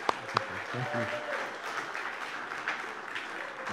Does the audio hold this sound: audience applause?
yes